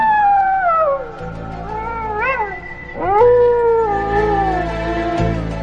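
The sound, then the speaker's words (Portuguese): A coyote howls in long, wavering, high-pitched cries that rise and fall, fairly loud, with a brief dip and then a sharper renewed wail; no one speaks. “Eu? Não, coiote.”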